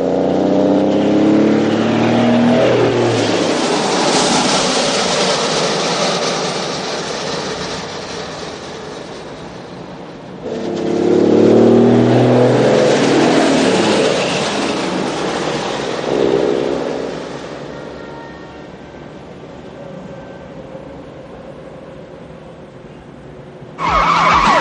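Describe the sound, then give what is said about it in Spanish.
Loud roaring of a truck speeding along a busy city road, dragging its trailer ramp and throwing sparks with a grinding, scraping metallic screech, chased by a car at full speed, surging in two long passes and cutting off abruptly near the end; no voices. “Mientras, por una carretera de la ciudad, los ladrones continúan su huida arrastrando la rampa del remolque y provocando chispas como fuegos artificiales.”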